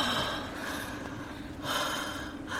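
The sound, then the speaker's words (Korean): Deep, slow breaths in and out, clearly audible, with long airy inhales and exhales swelling and fading in a steady rhythm, no talking; a man breathing deeply while having chest pain. “오빠, 숨 쉬어, 얼른. 크게 들이마시고, 내쉬고, 들이마시고, 내쉬고.”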